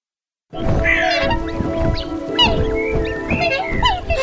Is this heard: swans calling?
yes